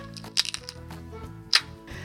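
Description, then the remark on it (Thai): A dry, rotten branch snaps under a large dove perching on it, two sharp cracks, the first around half a second in and a louder one near the end, over a low steady background hum. “นกเขาตัวโตบินไปเกาะกิ่งไม้แห้ง แต่โชคร้าย กิ่งไม้ผุหักลงทันทีที่โดนเกาะ”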